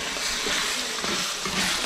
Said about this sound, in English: We're just frying the meat and all the good stuff in the fat in the meat. It smells really good.